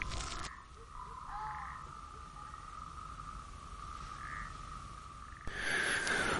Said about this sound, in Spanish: Eh, aquí las que no susurran son las ranas.